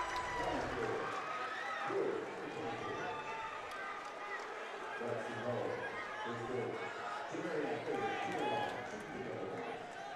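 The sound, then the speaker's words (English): A high school basketball gym crowd cheering as a player gets varsity time and shoots free throws at the end of the game, a loud, steady roar of many overlapping voices that holds for about ten seconds, with shouts and murmurs blending together. “The crowd loves it as he's getting a little bit of varsity time at the end of the game here.”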